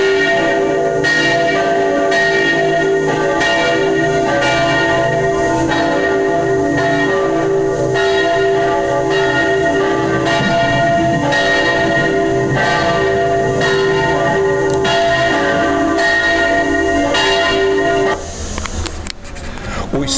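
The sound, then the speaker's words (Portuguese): Church bells at St. Peter's Square in the Vatican peal loudly in a steady, overlapping rhythm, their ringing tones layered and sustained for most of the stretch before cutting off abruptly near the end, leaving quieter background sound. “que estamos ouvindo são da Praça São Pedro, no Vaticano.”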